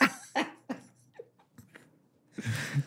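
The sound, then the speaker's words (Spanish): A quick run of three sharp coughs, followed by a few softer sputters and then a rough, breathy burst of noise. “Se empieza a toser ….”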